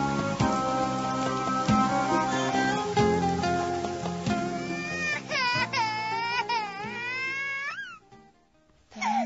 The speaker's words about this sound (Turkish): Tamam canım benim tamam ağlama artık. Annem birazdan gelecek.